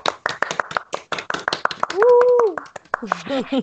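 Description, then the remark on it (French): A few people clap for the winner of a game in quick, uneven bursts of sharp, bright claps, while a voice lets out a drawn-out cheer midway and someone talks over the tail end. “Il a gagné quoi On applaudit.”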